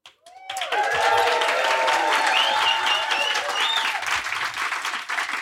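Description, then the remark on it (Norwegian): A live audience at a venue in Oslo, Norway, bursts into loud, sustained applause after a brief moment of quiet, dense clapping with cheers and a few whistles rising above it. “Velkommen eh, til eh, episode nummer 100 live innspilt på Internasjonalen i Oslo.”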